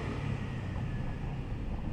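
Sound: moped driving past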